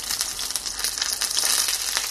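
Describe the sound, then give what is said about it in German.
Steady sizzling and crackling of schnitzels frying in hot oil, a dense hiss with fine popping throughout, no voices. “Die Temperatur, wenn ihr Öl warm ist, runterdrehen, damit euch die nicht verbrennen.”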